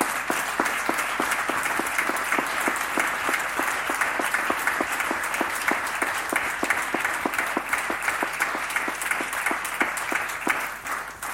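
A room full of people applauds steadily, a dense wash of many hands clapping at once, sustained and fairly loud for about eleven seconds before tapering slightly at the end.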